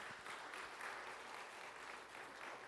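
A crowd claps steadily in a dense, continuous wash of applause, sustained throughout without pauses or voices.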